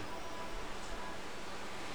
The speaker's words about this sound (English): You hear the, the, the waves crashing. Just very, very beautiful, very relaxing atmosphere.